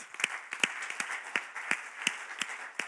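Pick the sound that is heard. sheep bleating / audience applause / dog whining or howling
audience applause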